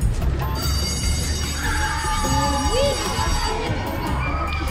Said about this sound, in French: Pour tous ces petits cocos-là, là, on entend qu'ils jouent du ballon poire jusqu'au ballon chasseur, en passant par le groupe qui préfère juste chiller sur un banc.